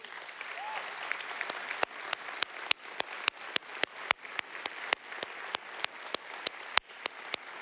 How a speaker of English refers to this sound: Let's give this guy a round of applause right now.